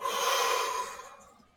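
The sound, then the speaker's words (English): A single slow, deep breath, bigger than normal, expanding the ribs wide and low, airy, with a strong rushing sound as it is let go that gradually fades away. No one speaks. “One, you are breathing very slow and then two, you're breathing bigger than normal.”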